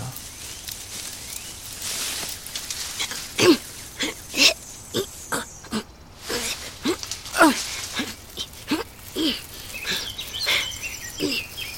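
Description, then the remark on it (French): Dry dead leaves rustle and crunch in irregular bursts of crisp crackling, with a few brief pauses, and no voices. “Mais c'est quoi ces bruits de feuilles mortes”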